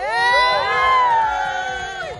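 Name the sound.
crowd shouting and cheering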